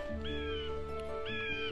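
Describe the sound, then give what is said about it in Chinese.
Two crows give two drawn-out, nasal caws, one after another with a short pause between, sounding over a steady humming tone with no talking. “糟糕，这两只乌鸦不但不害怕稻草人，反倒嘲笑起他来”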